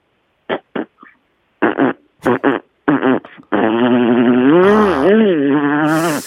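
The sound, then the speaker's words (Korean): A voice imitates a motor scooter a second time in a sound-imitation contest: several short sputtering bursts, then a long sustained buzzing drone with wavering pitch, loud. “자, 좋습니다. 스쿼터 다시 한번 들어볼게요.”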